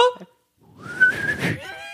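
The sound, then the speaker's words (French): A person whistles a single rising note that glides upward and holds, breathy, after a brief short tone and a moment of silence, whistling to make a snoring person stop, as in the film La Grande Vadrouille. “la grande patrouille quand il siffle pour que l'autre il arrête de”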